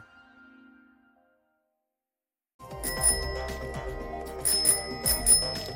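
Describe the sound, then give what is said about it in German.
A bicycle bell rings several times in quick bright bursts, fairly loud, after a brief quiet pause with a faint low hum at the start. “Eine Klingel am Fahrrad.”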